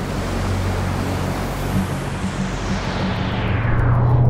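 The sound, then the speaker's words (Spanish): A motor launch carrying passengers out to an aircraft carrier drones steadily across choppy sea, its low engine hum rising toward the end beneath a constant wash of rushing water and spray. No one speaks. “Nos embarcamos en una de sus lanchas.”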